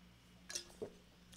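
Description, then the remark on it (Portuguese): A quiet sip of water: a light clink of a glass, then a soft gulp, both brief against a faint background hum, with no talking. “Só um golinho de água.”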